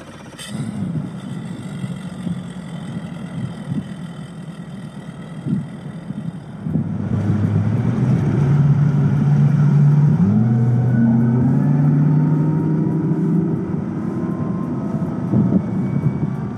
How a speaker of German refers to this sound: Wenig später erklang das Grummeln des gestarteten Mercury Außenborders